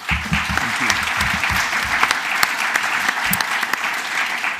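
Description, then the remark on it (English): A room full of people claps steadily to welcome a speaker, a warm burst of applause with dense overlapping hand claps that stays even throughout, heard from within the audience. “So can we give him a warm welcome, please?”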